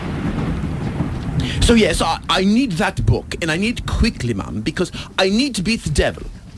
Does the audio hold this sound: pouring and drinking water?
no